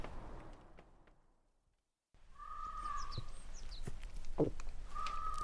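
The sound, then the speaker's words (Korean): In the morning, a crow caws loudly several times in harsh, ragged bursts after a brief silence, with other bird chirps and faint outdoor background around it. “아, 아침부터 웬 까마귀가 저리 난리야?”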